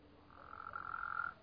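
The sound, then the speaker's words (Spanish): A small frog gives a single sustained, buzzy croak lasting about a second, moderately loud against a quiet background in the dark at night, with no talking. “Eso es una ranita.”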